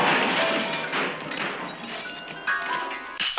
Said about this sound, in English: well, moving on to your next choice now, which I'm not going to say this is the best link I've ever thought of, but I'm sure when you got your can of quattro at the vending machine, there's a satisfying clonk that sounded a bit like this.